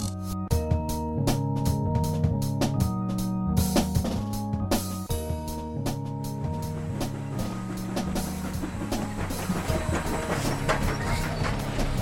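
Train wheels clicking over the rails in a steady, repeating clickety-clack, sharp clacks riding on a loud, low droning rumble with humming tones, no voices.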